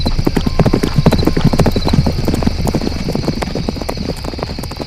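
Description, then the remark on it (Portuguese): Horses' hooves clip-clop steadily on hard ground, a dense, continuous rhythm of many hoofbeats, with a faint high hum running underneath throughout. “E tome cuidado, escolha os dois homens mais descansados e pegue os cavalos menos cansados.”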